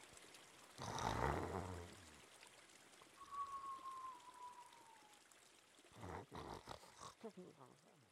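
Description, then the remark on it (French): A river flows steadily in the background, its water rushing throughout, interrupted by a loud low rumbling burst early on, a thin sliding whistle midway, and a few more rumbles near the end. “Le gros glouton décide d'aller faire la sieste au bord de la rivière.”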